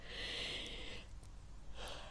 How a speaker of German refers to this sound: Das musste ich auch gähnen, weil ich so empathisch bin. Die hat gerade noch gegähnt und jetzt muss ich, wurde ich angesteckt.